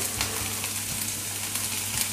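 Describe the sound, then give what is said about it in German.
Food sizzles steadily in a hot pan, a dense crackling hiss that stays even throughout, with faint low hum underneath and no talking. “Ihr seht, das brutzelt jetzt schön hier.”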